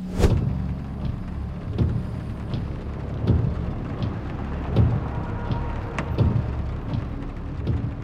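Mumtaz drives along in his car while picking up Mike. There is a steady low road rumble, and dull thumps recur about every second and a half, as if the tyres are rolling over joints in the road. No one speaks.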